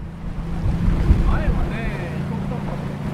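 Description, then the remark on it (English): A boat engine hums steadily as the boat moves over sea water, beneath wind buffeting the microphone and water churning along the hull, with faint chirping calls rising briefly in the middle. “let me hop on one of their boats. And off we go.”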